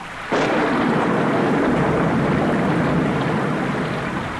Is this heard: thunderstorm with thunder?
yes